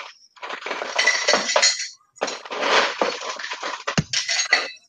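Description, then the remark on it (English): Ice cubes clatter and clink into a mixing glass and a serving glass for a bourbon cocktail in two busy bursts separated by a brief pause, with a sharp knock near the end; fairly loud, no voices. “So let me get a little ice for that.”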